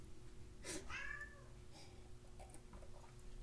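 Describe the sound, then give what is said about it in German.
A cat lets out a single drawn-out meow, its pitch bending downward, heard fairly quietly over a low steady hum, followed by faint scattered rustling. “Weiß nicht, ob ihr das hört. Das ist der Kitchen, den ich vorher übrigens auch in äh, einem Versehen im Balkon ausgesperrt habe.”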